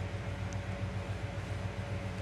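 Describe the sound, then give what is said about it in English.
A man's Dodge Challenger engine rumbles outside at about 6 o'clock in the morning with a deep, steady, throbbing low idle, holding an even loudness throughout with no clear revs. No one speaks. “You can, you can fucking hear this engine fucking NASCAR engine on this car.”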